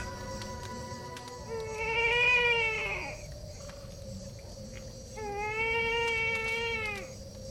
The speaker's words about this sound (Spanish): De pronto, se estremeció al oír el llanto del niño.